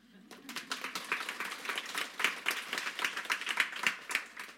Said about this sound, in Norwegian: Og en applaus for det gode spørsmålet.